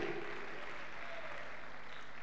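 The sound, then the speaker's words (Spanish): A crowd applauds for the Lord, a dense, even wash of many hands clapping at once, sustained for the whole couple of seconds with no voices on top. “Un aplauso grande para el Señor, amén”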